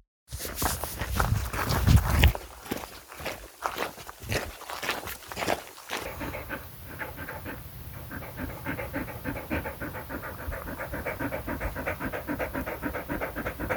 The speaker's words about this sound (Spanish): pero sobre todo para terminarla sin morir de calor, porque si no, pues el perro termina jadeando y sin ganas de andar y, es que lo ves que no lo está disfrutando.